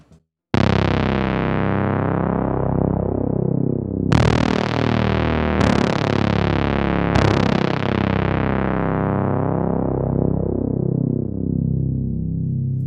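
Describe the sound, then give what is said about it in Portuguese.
Someone imitates a Hans Zimmer-style cinematic film-score effect: four heavy, distorted brass-like blasts, each a deep booming hit with a long ringing decay that overlaps the next, loud, with no talking. “Vamos ver se eu consigo fazer um pó igual do Hans Zimmer.”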